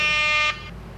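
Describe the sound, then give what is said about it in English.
A single short, loud air horn blast, harsh and buzzy, lasting about half a second before cutting off abruptly into quiet background noise. “it's just the air horn.”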